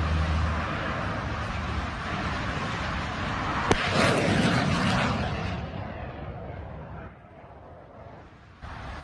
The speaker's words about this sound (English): So that sound you heard was Russian air defense firing at drones, which they say was from a Ukrainian attack.